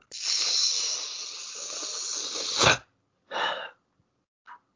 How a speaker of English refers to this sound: I'm gonna do a deep deep teeth suck if you don't mind